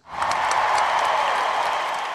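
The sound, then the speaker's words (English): A crowd breaks into steady applause to welcome a guest, many hands clapping in a dense, continuous patter that swells quickly and holds at a strong level for a couple of seconds. “All right, so I, I mean, I I'm, i need to clap because you guys, if that's the hype up of the of the day of the decade.”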